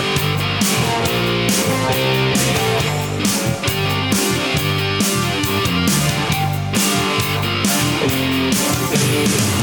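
A live rock band plays loudly and continuously, with gritty electric guitar riffs over a steady pounding drum beat and full bass, the sound dense and up close throughout.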